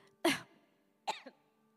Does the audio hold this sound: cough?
yes